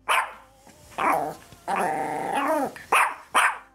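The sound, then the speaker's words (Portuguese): A dog barks loudly in short, sharp bursts, breaking into a drawn-out snarling growl midway before two more quick barks; no one speaks. “Editor, solta o som de um cachorro aí”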